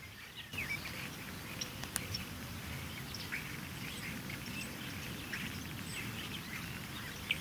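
Small birds in a hedge full of alder buckthorn bushes give short, high-pitched calls, scattered and irregular rather than true song, over a steady low background rumble. No one speaks.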